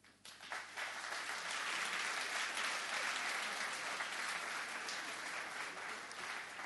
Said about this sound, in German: Applaus.